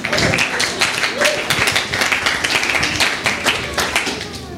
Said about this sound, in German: ja genau, da können wir mal klatschen.